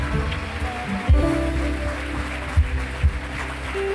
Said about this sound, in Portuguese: E você que crê, diga graças a Deus e aplauda Jesus o mais forte que você puder. Aplauda, aplauda.